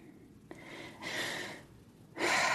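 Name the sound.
deep breathing exercise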